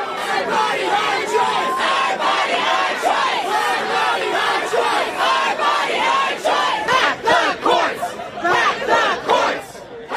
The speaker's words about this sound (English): That was the sound from outside the Supreme Court last night. Protesters from both sides of the political spectrum flocked the doors outside the highest court in the land